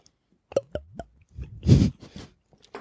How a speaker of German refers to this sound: So, wir müssen Prost. jetzt mal kurz was trinken.